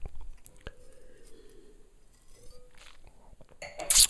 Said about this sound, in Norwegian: Åh, ta en slurk til, jeg.